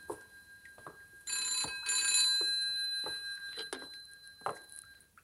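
A telephone bell rings loudly in two bright, rattling bursts, the second longer, with a few soft knocks and shuffles before and after in an otherwise quiet room.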